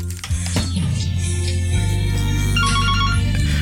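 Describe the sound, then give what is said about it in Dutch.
A phone ringtone for an incoming call plays loud in Amsterdam, a steady electronic melody of repeating tones that runs the whole moment with no voices over it. “Oh, ik krijg telefoon hier, ook een blikje.”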